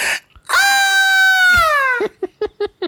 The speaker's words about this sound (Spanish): Hiciste mejor grito que todo el cast de Canadá.